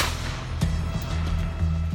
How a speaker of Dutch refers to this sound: Een van de daders schiet op een auto waarachter een agent verscholen zit. Het is de eerste van talloze, maar scherp gerichte schoten op agenten.